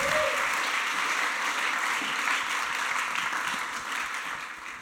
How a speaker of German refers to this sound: Nochmal herzlichen Applaus.